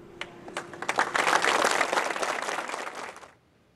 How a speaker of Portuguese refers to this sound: Às 2 horas e 30 minutos, uma salva de palmas marcou o horário exato em que o incêndio começou 10 anos atrás.